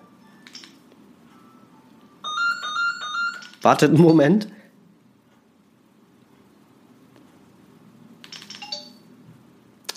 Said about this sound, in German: habe das Telefon auf lautlos geschaltet. Super, dass es nicht funktioniert. Jetzt mache ich es mal ganz aus.